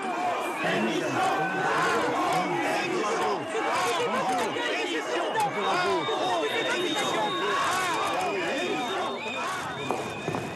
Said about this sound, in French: président est donc descendu dans l'arène à Célestat. Pas de tapis rouge, mais des huées.